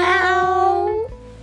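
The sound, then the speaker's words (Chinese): A single drawn-out kitten's meow, imitated by a voice, holds a steady, fairly high pitch before dipping and breaking off after about a second, followed by brief quiet. “小猫却咬着它的裤脚。”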